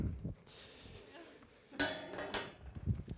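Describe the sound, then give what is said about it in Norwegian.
Five drinking glasses being handled, with a few bright clinks and rattling knocks at irregular moments, fairly quiet overall, along with some soft shuffling. “Og så er det noe glass.”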